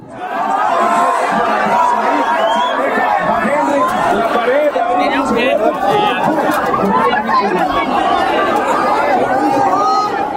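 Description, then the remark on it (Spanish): A huge stadium crowd at a football match lets out a sustained, loud collective groan of disappointment after a VAR review rules one of their team's players offside, thousands of voices blending into a dense, continuous roar of murmuring and dismay that never lets up. “Si quieren saber cómo se escuchan los corazones de miles de personas rompiéndose al mismo tiempo, porque el talón de uno de sus jugadores está adelantado, suena más o menos así.”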